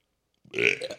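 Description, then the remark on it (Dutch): A single loud burp that swells after a moment of silence and trails off with a rough, throaty rattle. No one speaks. “Want ik was aan het flexen dat ik kon boeren voor keer.”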